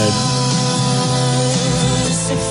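An RMC radio news jingle, the next day's bulletin sound played by mistake on 8 March 2023, plays loudly, a dense burst of sustained, layered musical chords with bright accents, filling the whole moment with no voices over it.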